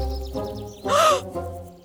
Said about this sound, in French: Attends! Je crois qu'il y a un corbeau là-bas! Ah, ben non. C'est une corneille. C'est vrai qu'on les mélange souvent.